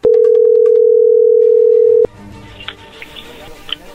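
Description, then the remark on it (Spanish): A loud, steady telephone dial tone hums at one low pitch for about two seconds as a call is placed, then cuts off abruptly, leaving a quieter, murky background with faint scattered sounds. “Vamos a llamarle y vamos a ver si te Manda los chocolates a ti”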